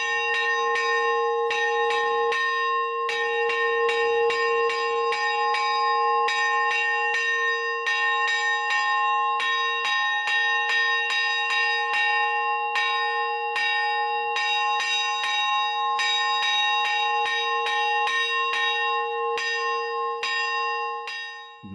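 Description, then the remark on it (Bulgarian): Morning church bells from the many churches of the Prespa area ring continuously in a rapid, overlapping peal, bright metallic strikes layered over sustained humming tones, steady and loud throughout with no voices. “Сутрините са особено очарователни, защото те будят преспанските камбани от многото църкви в района.”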